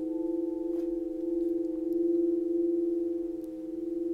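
A crystal singing bowl hums a steady, pure resonating tone with faint overtones during a meditation, its volume gently swelling and ebbing throughout. It is sustained, with no talking.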